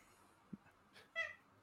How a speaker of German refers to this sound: Ich höre da die ganze Zeit auch oh, so eine Katze kommen. Ja, ja, ihr hört vielleicht meinen Kater.